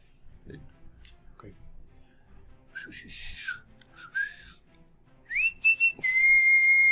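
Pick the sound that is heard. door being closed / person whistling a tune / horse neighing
person whistling a tune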